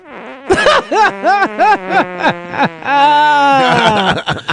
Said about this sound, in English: Ew! Ew! Ew! That fart coming along nicely,